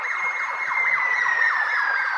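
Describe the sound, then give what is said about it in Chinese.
A passing fire engine out on a call in Melbourne, its siren wailing steadily with quick repeating up-and-down sweeps and a high sustained tone that drifts slightly lower, loud and alone with no voices. “好像不知道为什么消防车出动，等它过去以后我们再讲。”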